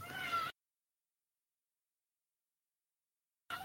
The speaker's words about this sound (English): I'm a cat person. I agree with everything what the cat just said there. Has opinions on Liverpool.